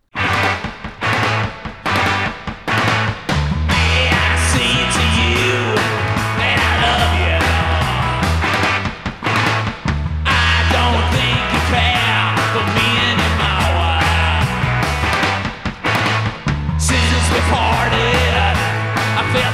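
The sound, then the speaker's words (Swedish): A 1960s-style pop song cover version, recorded in 2002 and played faster and more garage-like, plays loud with a full band, a steady driving bass line and bright, busy instrumentation running continuously for about twenty seconds. “Så … versionen är baserad på …-versionen av ….”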